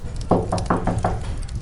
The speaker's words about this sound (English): The captain jumps back into his room, slams and bolts his door, and waits. The moment of silence seems interminable. Then, a knock at the door.